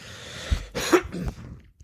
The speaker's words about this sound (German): Entschuldigung. Außer Hustenanfall?